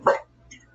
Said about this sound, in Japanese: すいません、しばらく犬だけ参加しました。いいよ、犬。